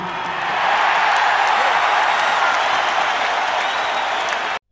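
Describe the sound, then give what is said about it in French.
A large arena crowd at an MVP trophy presentation roars with sustained cheering and applause, a dense, loud wash of clapping and shouts holding steady for several seconds before cutting off abruptly. “Every time I come in, every time I come in this gym, in this arena, I hear my favorite song. You know, y'all voices.”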